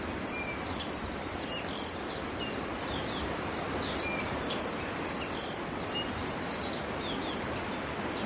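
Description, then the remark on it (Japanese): A dense chorus of many birds singing and chirping at once, recorded around 5 pm in the evening at Kamikochi, a mountain resort area, with overlapping calls scattered throughout over a steady outdoor hiss, with no one talking. “これは夕方の5時ぐらい夕方5時ぐらいなんですよちょっとあれですいろんな鳥がたくさんいる感じになってますね”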